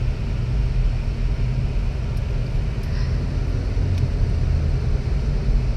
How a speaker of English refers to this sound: Ooh, there's traffic. I stopped because I was letting people in, sorry.